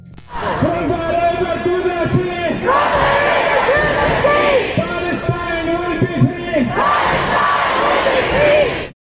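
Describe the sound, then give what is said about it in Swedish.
A large crowd of thousands chants loudly in unison, voices rising and falling in a steady repeated rhythmic pattern of shouted phrases that continues throughout without pause, chanting that Israel are murderers and that the area from the Jordan River to the Mediterranean should be cleared of Jews. “Man har återkommande och inför tusentals människor i kör skanderat att Israel är mördare och att man ska rensa området från Jordanfloden i öster till Medelhavet i väster från judar.”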